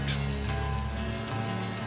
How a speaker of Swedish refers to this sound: Nu blir det, blir det dåligt väder också. Nu regnar skiten bort.